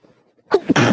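A single loud sneeze bursts out after a brief quiet moment, a short intake followed by a sharp, breathy explosion that fades quickly.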